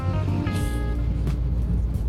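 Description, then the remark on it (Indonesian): A steady, low rumble inside a car being driven by a lone driver fills the short recording, with a brief tonal hum and a soft whoosh of passing noise but no talking. “nyetirnya mesti pakai masker sekarang sendirian bahkan ini gue ini gue tag di mobil”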